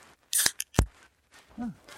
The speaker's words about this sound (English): And uh, I'm going to call this a success and crack open a cold beer.